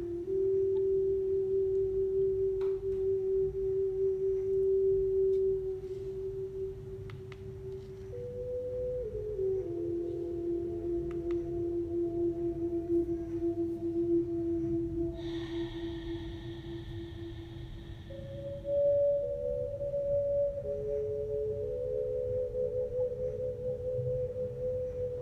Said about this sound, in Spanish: Dejando que cada célula de nuestro cuerpo reciba el sonido de la música.